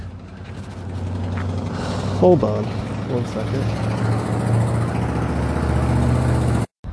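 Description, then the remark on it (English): A loud, rumbling engine of an older car drones steadily in the background, low and throaty throughout, while a person briefly speaks over it. “Usually cars don't matter unless they're really old and loud.”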